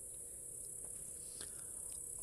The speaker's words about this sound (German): Und ich stehe hier, es duftet nach Gras und Kräutern. Und es ist schön, wir hören die Vöglein im Hintergrund und das Zirpen und Grillen